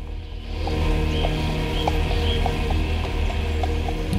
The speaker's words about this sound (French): Là, on a clairement un cheval. Cataclope, cataclope. Cavale, cavale.